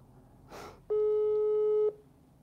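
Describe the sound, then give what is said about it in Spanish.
A short breathy rustle, then a single loud, steady electronic telephone ringback tone lasting about a second while a call is placed to a caller in Nuevo Laredo, with no one speaking. “llamando por teléfono.”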